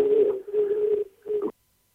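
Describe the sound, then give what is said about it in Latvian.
A steady, hollow howling tone of phone-line feedback echo, caused by a listener calling in live to a radio programme with their own radio set switched on, drones for about a second and a half, briefly dipping before swelling again, then cuts off into silence. “Atslēdzām klausītāju, jo, jo viņam bija, bija milzīga atbalsta, ka klausītājs ir pie sava radioaparāta un tad skan visu laiku saita veidojās.”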